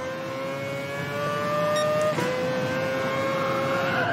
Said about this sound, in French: On sent les pneus qui crissent.